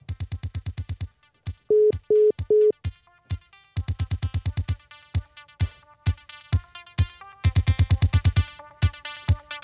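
Electronic tones of a phone call being hung up: rapid pulsing bursts and three short, steady beeps in the middle, fairly loud and close, with no one speaking.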